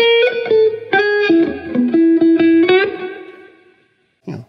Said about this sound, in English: While if I'm spelling out chord tones and and have some kind of melody going, you know, like this is a melodic motif.